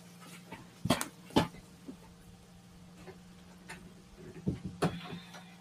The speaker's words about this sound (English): sorry about that I had to close the door